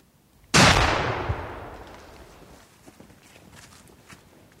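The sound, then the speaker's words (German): A single loud rifle shot, fired by a hunter at a group of wild boar at night in a forest thicket, cracks out sharply, then rolls away in a long, fading echo over the forest and a nearby residential area, lingering for several seconds, followed by faint rustling. “Der Knall hallt durch den ganzen Wald und über die Wohnsiedlung hinweg.”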